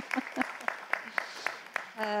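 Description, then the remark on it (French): Sparse audience clapping to thank the presenters at the close of a session, in a steady, even rhythm, roughly eight crisp claps over two seconds, fairly quiet, before a voice begins at the very end. “Euh, vous pouvez applaudir, ils vont se boucher les oreilles.”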